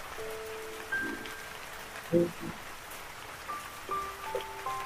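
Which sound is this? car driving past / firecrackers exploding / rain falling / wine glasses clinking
rain falling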